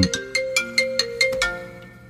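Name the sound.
mobile phone ringtone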